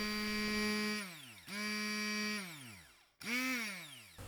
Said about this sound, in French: Une fois qu'on a enlevé les pépins, on va mettre nos oranges dans un mixeur ou sinon avec un mixeur plongeur et on va les mixer.